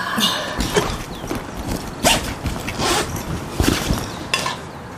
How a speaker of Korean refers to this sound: 내가 그 다음 말을 못 건네자 아이는 바삐 둘러맨 배낭을 벤치 위에 놓고는 배낭의 지퍼를 쓱 열었다.